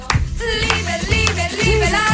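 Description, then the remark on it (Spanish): Applause welcoming a guest to a radio programme blends with a bright, tonal musical layer, holding steady and fairly loud for about two seconds, with a few sharper bursts of clapping standing out along the way. “bienvenido a este vuestro programa. Un aplauso.”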